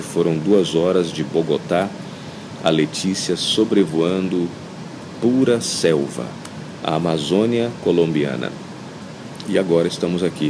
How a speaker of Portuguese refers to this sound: Então esse ruído que você escuta de fundo são ar, ar condicionado, é o ar condicionado, algumas pessoas que passam distante. Não é um aeroporto que tem um fluxo muito grande de passageiros.